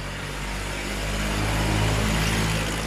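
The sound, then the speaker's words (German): A heavy tractor engine rumbles steadily, growing slightly louder as the tractor drives past, with a deep low drone and no talking. “oh, jetzt kommt der Traktor, jetzt müssen wir Pause machen.”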